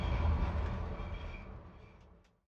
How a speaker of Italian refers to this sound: Me subo al metro justo a tiempo. Qué bien. Pero, unos minutos más tarde, estoy en el metro equivocado.